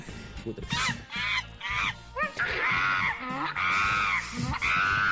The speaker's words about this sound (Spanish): Ahora el mono, el mono hace así.